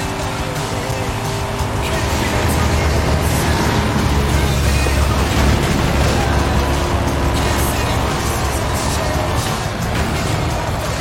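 A sports car engine in the video game Forza Horizon 5 roars steadily, revving hard throughout with a gritty tire squeal mixed in, loud, with no talking over it.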